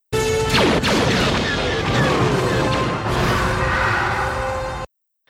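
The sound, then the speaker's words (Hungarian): Loud sci-fi weapon fire from alien warships and a roaring explosion as a ship is shot down, layered with shrieking, swooping whines like a starfighter's mechanical scream meant to sound like the ship screaming, dense and continuous for about five seconds before cutting off abruptly. “a Klingon fegyverek, és konkrétan ez a hang van, amit ugye a végén pedig olyan TIE Fighter-es hangnak hallotok, az pedig valójában egy sikolynak akar hallatodni.”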